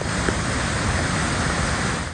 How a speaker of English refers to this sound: West of Brisbane, thousands of megalitres spilling from the Enoggera Dam.